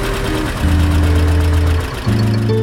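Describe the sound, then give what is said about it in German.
The engine of a MAN family tractor runs steadily in an old barn, its deep throbbing drone shifting pitch twice as the revs change, with no voices present. “Traktor Sound, ein Podcast über Traktoren, Schlepper und Trecker.”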